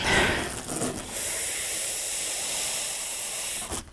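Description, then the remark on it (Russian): A steady hiss of a helium-air gas mixture escaping under pressure, loud, running unbroken for a few seconds with a slight surge at the start and a brief cut-off near the end. “Этой смесью можно спокойно дышать. Вот я сейчас попробую.”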